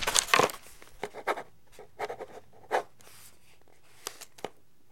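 Quick, scratchy strokes of a ballpoint pen writing the words "민정당 중앙정치연수원" (Democratic Justice Party Central Political Training Institute) on a large sheet of paper attached to a living-room wall, coming in irregular bursts with short pauses between them, fairly quiet, with no voices.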